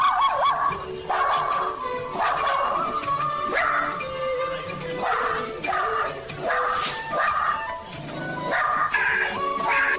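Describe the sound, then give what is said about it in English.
A small dog barks repeatedly in loud, sharp, high-pitched yips, with brief whimpering notes between bursts and a faint voice in the background. “You don't scare me, little dog.”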